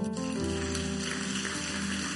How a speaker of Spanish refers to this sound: Denle un fuerte aplauso al Señor.